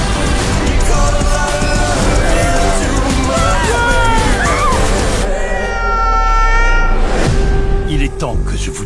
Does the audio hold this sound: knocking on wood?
no